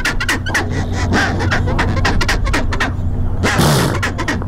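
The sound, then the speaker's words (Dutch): A penguin colony calls loudly and nonstop, with many braying, harmonic cries overlapping in a dense chorus over steady low rumbling. No one speaks. “ik heb al het geluk gehad van pinguïnkolonies in”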